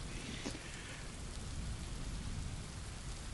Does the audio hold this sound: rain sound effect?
yes